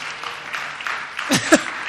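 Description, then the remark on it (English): A short stretch of scattered audience clapping at moderate volume, with a couple of brief vocal cheers rising out of it near the end. “I know you're used to him, but give him a little clap.”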